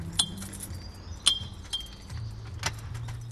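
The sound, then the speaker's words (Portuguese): Keys jangle and clink at the new door lock of the Academia Cidadã in Alcântara on a Monday, with four or so sharp metallic chinks that ring brightly, spaced irregularly over a low, steady rumble. No one speaks. “abre a semana com uma nova fechadura.”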